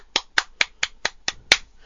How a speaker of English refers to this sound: this uh, uh, Best overall Sonic Site 2006 is the Sonic Stadium. Round applause! Woo!